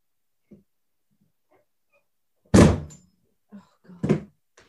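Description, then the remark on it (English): Someone knocks at the front door: a loud thud, followed a moment later by a second, softer knock-like bump, with faint shuffling and small clicks around them and no talking. “There's someone at the door.”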